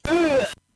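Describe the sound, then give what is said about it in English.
A single short, voiced groan from a video game character dying, lasting about half a second with a slightly falling pitch and an abrupt end, with no other sounds. “here's here's the sound of the, the character dying.”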